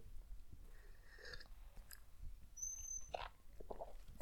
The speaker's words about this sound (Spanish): Sí, este, Pausa para trago de café.